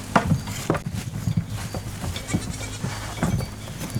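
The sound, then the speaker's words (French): Six goats kept for milk and cheese bleat repeatedly, their wavering cries overlapping against a steady low rumble, with faint scuffling and shuffling of the animals. “Et le lait, du coup, tous les jours, euh, vous, avez un laboratoire euh Un labo, euh, après, il y a six chèvres”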